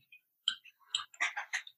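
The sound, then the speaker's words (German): A quick, irregular run of crisp keyboard typing clicks, fairly faint, with no voices, the taps bunching together toward the end. “hör mal mit dem Getippe auf, bitte. Du kannst ja auch leise tippen.”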